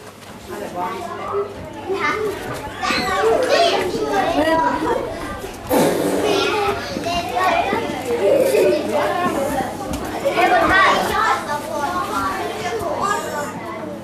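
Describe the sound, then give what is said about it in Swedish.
A group of children chattering and playing together, many overlapping young voices talking and calling out at a steady, lively level throughout, with occasional louder bursts. “det här vardags ljudet som uppstår i en, en grupp med många som pratar tillsammans”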